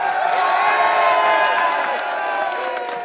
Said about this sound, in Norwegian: Ett år etter det mismodige nedrykket kom det begeistrede opprykket. Et hyl av glede. Glede over et opprykk, men vel så mye over at et fotballag fra ei bygd kan tukte klubber fra store byer.